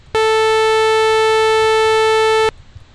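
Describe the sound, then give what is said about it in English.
A loud, steady sawtooth wave test tone, bright and buzzy, holds one unchanging pitch for about two and a half seconds, then cuts off abruptly into near silence. “And then a sawtooth wave sounds like this.”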